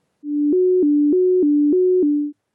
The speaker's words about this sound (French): Mais lui, par contre, il va avoir un truc très sympa qui va lui arriver, c'est que juste, je vais entendre deux notes alternées.